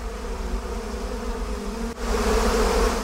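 A loud, steady insect buzz drones continuously, like a hornet hovering, growing brighter and more intense partway through with no speech; a hornet buzz sound effect used in a Hornets season ticket advertisement.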